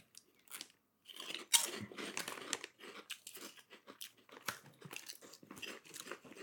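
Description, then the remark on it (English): Someone crunches Bugles corn snacks: a small crackle, then a sharp loud bite followed by several seconds of rapid, irregular crisp crunching as they chew, with no talking. “Ooh, Bugles has such a nice texture.”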